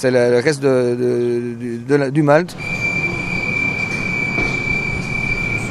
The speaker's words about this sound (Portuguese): Bruxelas, Gar Central. Estou a entrar no comboio em direção ao sul.